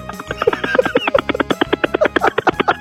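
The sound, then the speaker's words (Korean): A person imitates a rescue helicopter with their voice in a sound-impression segment of Park Myung-soo's Radio Show, producing a fast, steady chopping rhythm of loud voiced pulses that mimic whirling rotor blades. “구조를 하러 가는 헬기인데 아, 구조를 한번 해보겠습니다.”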